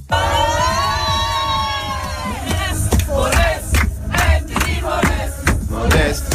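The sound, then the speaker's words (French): Germany's women's football team players chant a fan song about footballer Anthony Modeste together on their team bus after their World Cup round-of-16 win against Nigeria, voices loud and rhythmic in unison, rising in a sustained opening note before breaking into punchy, repeated shouted syllables. “Écoute les Allemandes dans le bus après la victoire en huitième de finale contre le Nigeria.”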